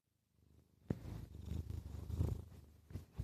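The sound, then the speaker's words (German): A tomcat lying on a desk, on a keyboard and phone, purrs right up against the microphone, a deep, steady rumble with rhythmic pulses that swells after a brief quiet start and continues to the end without any talking. “Ja, ja, das ist der Kater, der auf meinem Schreibtisch, auf meiner Tastatur liegt und auf meinem Handy.”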